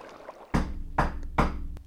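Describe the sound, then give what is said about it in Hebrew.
Three loud, resonant knocks on a courtyard door, made by the navy, evenly spaced about half a second apart, each with a boomy thud and a short ringing decay, with no voices. “ובדיוק אז הם שמעו”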